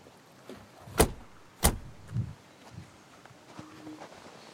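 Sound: car engine idling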